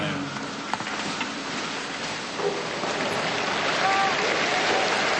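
A large crowd of faithful and pilgrims applauds steadily after receiving the Pope's blessing following the Angelus prayer, a dense, continuous patter of many hands clapping that swells slightly louder toward the end, with faint voices mixed in.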